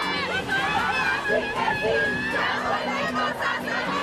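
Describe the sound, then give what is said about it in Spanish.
A large crowd of tens of thousands of women marching on 8 March to demand justice chants and shouts together in loud, overlapping voices, a dense roar of rhythmic group calls that fills the whole moment, sustained. “Este 8 de marzo, decenas de miles de mujeres salieron a marchar para exigir justicia.”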